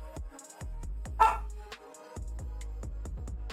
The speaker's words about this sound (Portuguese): Gente, um cachorro latiu aqui. O meu cachorro latiu, que é isso, rapaz? Como assim? Ó, oh, meu cachorro. Meu cachorro. Primeira vez. Primeira vez que a gente ouve o meu cachorro na live.